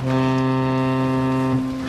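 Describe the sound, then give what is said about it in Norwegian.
A single sustained horn blast from a small fishing boat (a sjark), loud, holding a steady low tone with rich harmonics for about two seconds before it starts to fade. “Jeg ble så jumpscare altså, Jeg ble så, så skremt av den båten, av den sjarken.”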